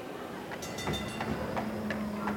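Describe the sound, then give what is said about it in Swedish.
A train with a courier carriage, bound directly for Moscow, rolls steadily along the rails, a continuous low rumble and hum broken by a loose series of sharp metallic clacks from the wheels, moderately loud, with no voices. “med visum och resa i kurirvagn per tåg direkt till Moskva.”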